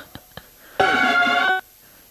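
A loud mobile phone ringtone plays a short, bright electronic tone for under a second, preceded by two faint clicks, then stops abruptly.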